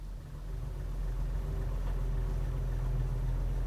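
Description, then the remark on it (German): A car engine idles quietly and steadily at night, heard from inside the car, a low continuous rumble with an even hum that holds at the same level throughout, with no voices. “Ich sitze im Auto. Der Motor läuft leise.”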